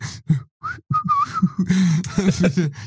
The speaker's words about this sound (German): Der pfeift.